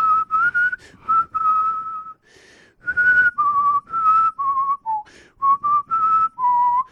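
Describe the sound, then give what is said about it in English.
A single person whistles a clear, bright melody featured in the films Babe and Babe: Pig in the City, notes held and stepping up and down in short phrases with brief breaths between, fairly loud with no talking. “The music was featured in Babe and Babe Pig in the City”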